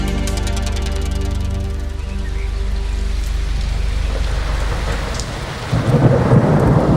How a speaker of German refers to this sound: Es donnerte und blitzte schon seit Stunden und es goss wie aus Eimern